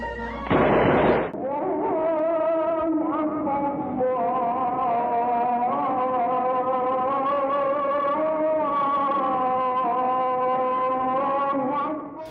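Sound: ramadan iftar cannon firing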